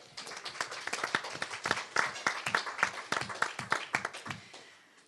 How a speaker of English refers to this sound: So, round of applause for the Wichita Public Library as well.